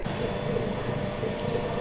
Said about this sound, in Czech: Tohle byl zvuk čerpadla a to čerpadlo náleží deskovému filtru